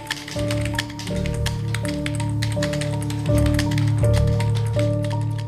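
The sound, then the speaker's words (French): Rapid, irregular keyboard clicks patter steadily throughout, crisp, as someone types numbers in quick bursts, entering them from paper listings, over a low humming tonal drone that shifts pitch every second or so. “Ce qui veut dire qu'il y a trois gars du groupe dont le, le boulot, depuis plusieurs mois, c'est de rentrer les numéros. Comme ça.”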